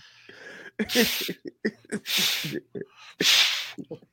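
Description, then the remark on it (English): Someone blows up a balloon with three strong, breathy puffs of air, each lasting about half a second, with short gasps and mouth noises in between. “Do you hear that, folks? That's the sound of a balloon filling.”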